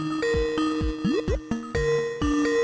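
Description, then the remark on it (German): A phone call ringing tone plays in repeating electronic tones, sounding warped and distorted with wobbling pitch bends between the notes. It stands alone with no talking, steady. “Schon alleine jetzt der Klingel, äh, der Rufton klingt nicht so gut.”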